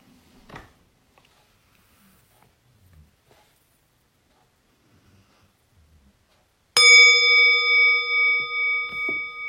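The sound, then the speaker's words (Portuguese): After several seconds of near silence, a meditation bell is struck once and rings on with a clear, sustained tone that shimmers and pulses gently as it slowly fades. “Então, procura observar o efeito do som do sino na sua prática.”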